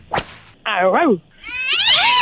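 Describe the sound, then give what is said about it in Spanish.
A woman's voice imitates a dog barking over the phone: two drawn-out, wavering yelps, loud, following a sharp snap at the start. “entonces trataré de ladrarle más recio. ¿Y cómo le ladraría, …?”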